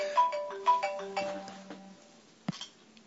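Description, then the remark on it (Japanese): A phone ringtone plays a short melodic run of clear electronic notes, several tones stepping down in an even rhythm, then a brief click as it cuts off; an incoming call from a publisher. “えっ、ー、と、何話してましたっけ 今ちょっと出版社から電話ありましてね、えー、ちょっとその、今後の原稿のスケ,、ねスケジュールについてこういうふうにっていうふうにえー、そういう指示があったんでね”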